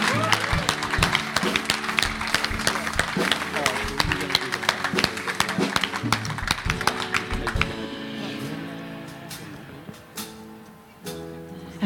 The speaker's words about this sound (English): And, church, can we just, can you clap for our families as well? Thank you.